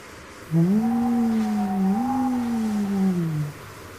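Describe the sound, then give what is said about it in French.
Icy wind moans through trees in a snow-covered forest in one long, hollow tone that sags and swells for about three seconds, fairly loud, with no talking. “Le vent glacial souffle entre les arbres et pousse des gémissements.”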